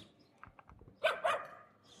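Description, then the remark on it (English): A dog gives two sharp, loud barks in quick succession, preceded by a few softer muffled sounds and followed by quiet. “He talks like kind of doggy.”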